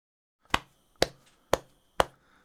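Four crisp taps of hands on the front of a chest, made as a body-rhythm exercise in a music lesson, evenly spaced about half a second apart in a steady beat, each a short sharp slap that fades quickly, with no talking.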